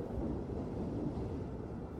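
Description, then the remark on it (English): A fierce storm settling in at Isaac's Point on the Norton Sound in 1925 rumbles low and continuously, with a deep, steady roll of thunder filling the whole moment and no voices present. “he and his team head back to Isaac's Point, where he's able to sleep for a few hours as the fierce storm settles in.”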